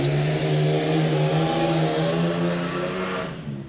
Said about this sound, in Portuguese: Caramba! Enfim, tinha o Irã e outro sujeito lá, isso foi um carro, viu?